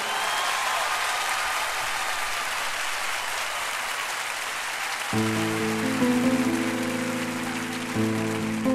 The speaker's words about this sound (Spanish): Y quiero llevarme de ustedes un aplauso para ellos en este momento. Sí, venga.